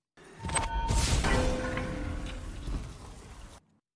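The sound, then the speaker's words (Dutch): A video game sound effect of a Titan character's super ability: a loud, dense burst with a rising whoosh and ringing tonal hums, sustained for a few seconds before cutting off abruptly. “het was het geluid van de super van een Titan uit de game Destiny”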